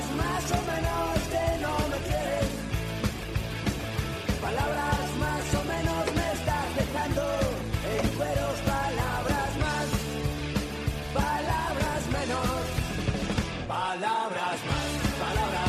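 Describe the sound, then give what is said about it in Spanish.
A radio theme tune plays loudly and continuously, full and layered with melodic lines over a steady bass, briefly thinning out near the end before picking back up. “Pues hay que abrir, como siempre, cuando suena esta sintonía, tiempo de análisis de tertulia”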